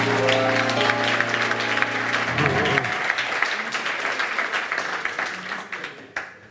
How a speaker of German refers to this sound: Ich freue mich auf ein spannendes Gespräch. Herzlich willkommen, Charlie Graf. Applaus